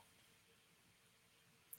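A single sharp, crisp computer mouse click on a create button to make a new folder arrives right at the end after near silence, with only faint background hiss.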